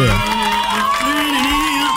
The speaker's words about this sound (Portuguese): E, portanto, portanto, aplausos para esse rapaz que ele merece!